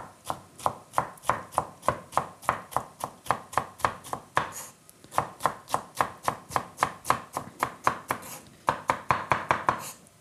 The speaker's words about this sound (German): Also ich tue jetzt die Länge nach Streifen runterschneiden. Vom Sellerie passt es auf